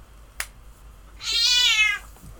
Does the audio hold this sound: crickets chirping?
no